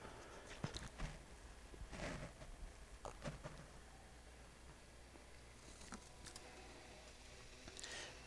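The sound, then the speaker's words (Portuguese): A person quietly drinks from a glass of water, with a few soft clinks, sips and swallows spread across a hushed, otherwise silent stretch with no talking. “Me dá licença de beber água.”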